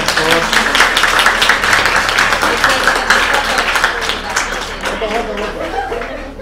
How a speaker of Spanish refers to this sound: Aplausos aquí para la compañera,